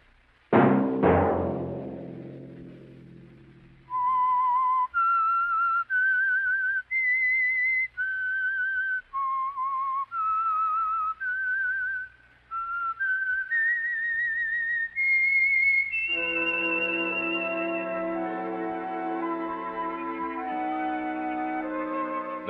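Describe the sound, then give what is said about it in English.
A lone whistled melody, the theme of the Signal Oil radio program The Whistler, moves through a slow, stepwise tune of sustained notes, then a full orchestral sting swells in and holds beneath it to the end. “that whistle be your signal for the Signal Oil program, The Whistler, each Sunday night at this same time.”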